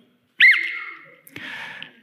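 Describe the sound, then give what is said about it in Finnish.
A basic sports whistle is blown once, not hard, giving a shrill, trilling tone that holds for under a second and then trails off into a breathier, rougher stretch. No one speaks. “Mulla on, mulla on tällainen mukana, mä en puhalla kovaa, ettei me korvat, mutta puhalletaan kerran pilliin, herätetään jos nukut.”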